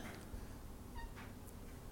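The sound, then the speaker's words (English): A cat named Xander lets out a single short, soft meow, wanting to be petted, against a quiet background hum, with no one speaking. “He meowed at me. He wanted a pet.”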